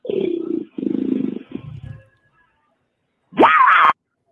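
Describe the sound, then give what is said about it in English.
A man lets out a deep, growling roar in three rough bursts on a voicemail that stops abruptly when cut off by the three-minute Google Voice call time limit, followed by a pause and a short, loud rising electronic tone. “I gotta say, I he hangs up in the middle of his roar.”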